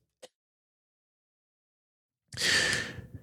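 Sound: cough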